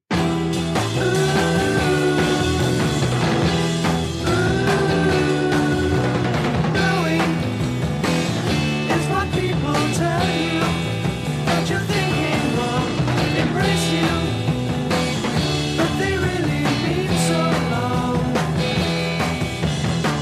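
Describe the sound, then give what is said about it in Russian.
A 1960s rock song, the third song on a record, plays steadily and loudly for the whole stretch, with a full band sound of guitars, bass and drums and a sung melody carrying over it. “Давайте и мы немного ее послушаем и попытаемся представить себе, что может пережить восьмилетний человек, который до этого вообще не сталкивался ни с какой рок-музыкой.”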